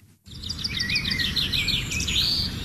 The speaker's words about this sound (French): sommes toujours au Zoo de la Flèche et si vous avez le bonheur d'entendre euh, ces jolis petits oiseaux, eux sont en liberté hein, et pas les oiseaux d'exposition euh, du zoo.